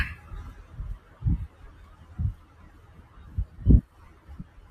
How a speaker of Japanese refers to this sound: あ、ちょっと聞こえるかなちょっと、ちょっと車が。